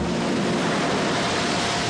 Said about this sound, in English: And beneath it all, the sea. Cruel, unyielding sea. Crammed with dark secrets that man on planet Earth has never fully understood. Quiet and calm now, with small white tufts of foam curling gently across the surface,